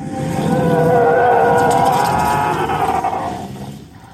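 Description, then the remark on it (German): A TIE Fighter engine roar: a loud, rasping howl with a layered, tonal scream that swells in and holds for about three seconds before trailing off, heard alone without talk. “Das kann doch nur ein TIE Fighter sein.”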